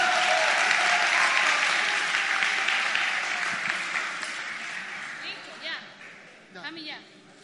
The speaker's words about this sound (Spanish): El aplauso para el mago, por favor.